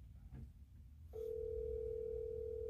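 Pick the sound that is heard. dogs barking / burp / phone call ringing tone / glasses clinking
phone call ringing tone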